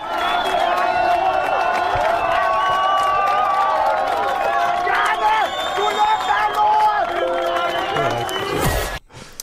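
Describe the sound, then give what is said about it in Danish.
A rioting crowd at Christiania yelling and shouting, many voices overlapping in a loud, continuous clamor of raised cries. It ends with a sudden sharp crash-like burst before cutting out. “Beboerne på Christiania holder krisemøde i aften, og lige nu strømmer sympatisører, venner, brugere og aktivister dertil, og alt tyder på, at optøjerne eskalerer.”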